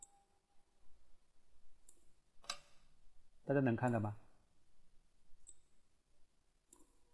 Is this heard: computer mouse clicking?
yes